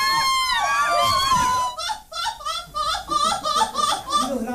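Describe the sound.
A person imitates a seagull in a seagull calling contest: a loud, shrill wail sliding down in pitch, followed by a quick run of strained, yelping cries, alone.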